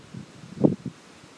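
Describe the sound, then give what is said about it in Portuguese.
Wind blowing in an open outdoor place in the sun, a soft steady rush with faint rustling of trees, swelling into one brief louder gust around the middle before settling back down. No voices. “Nós estamos num local aberto, no meio do vento, do sol, junto com alguns cachorros, barulho das árvores.”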